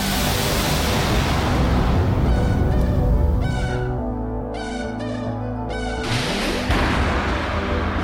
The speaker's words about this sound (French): Sans pub, on va parler théâtre, mais avant tout, nous allons quand même envoyer euh, un truc euh, que vous adorez, c'est le générique.